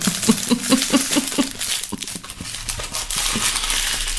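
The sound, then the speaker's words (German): Crackly rustling that starts with a quick run of regular rhythmic crinkles and then turns into a steady, busier rustle with scattered crunchy snaps. “Jetzt raschelt vielleicht hier rum.”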